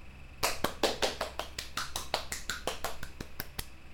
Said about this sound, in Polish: I teraz ja zacznę klaskać i mówić.